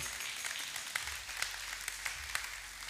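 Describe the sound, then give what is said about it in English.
An audience applauds to thank the Lord: dense, steady clapping from many hands forms a continuous hiss, with a few sharper individual claps popping out. Fairly soft, with no voices. “Come on, let's put our hands together and let's thank the Lord.”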